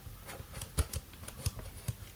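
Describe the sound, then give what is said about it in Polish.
A plastic slider on the right side of a telephone is pushed up and down to raise and lower the handset volume, making a series of sharp clicks and scrapes at an uneven rhythm, with no talking. “Dół w górę, e, zgłośnienie, zgłośnienie ściszenie słuchawki.”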